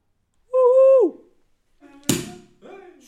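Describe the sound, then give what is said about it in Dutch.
A cork pops from a bottle with one sharp, loud burst, preceded by a drawn-out vocal exclamation and followed by brief voiced sounds. “is maar goed dat die kurk nog vast had, anders had hij in zijn gezicht.”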